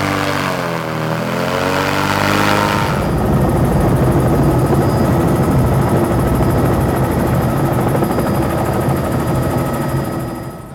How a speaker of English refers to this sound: Right now we're in early May. This is the peak of the dry season, so at this time of the year we have to get to these remote sites by helicopter, which is quite costly way to, to access these sites.